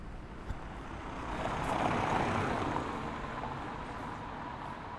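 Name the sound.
street traffic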